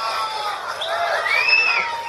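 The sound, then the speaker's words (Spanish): A large crowd at a Bitcoin event shouts together in a loud, steady roar, chanting "Fuck Elon", voices blending into a sustained din, with a high whistle rising briefly above the noise. “los gritos de fuck elon fuck elon fuck elon”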